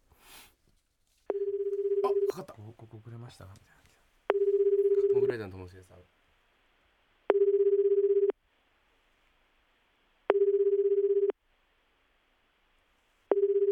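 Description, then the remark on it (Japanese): An outgoing phone call placed from a studio in Akasaka rings unanswered: steady ringback tones, one second on and two off, repeat five times. People talk over the first two tones, then the ringing continues alone. “じゃあこのスタジオから電話かけるんではあ、もしあの今手空いてたら出てくれると思いますでももしかしたら知らない番号だから出てくんないかもしれないし”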